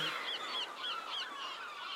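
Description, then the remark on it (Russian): Seagulls calling in a quick series of nasal, squawking cries, several in a row about a third of a second apart, heard over a steady wash of background noise. “Чайки! Вон, чайки!”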